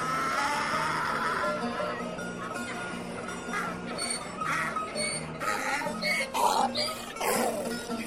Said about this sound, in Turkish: diye anırmaz mı?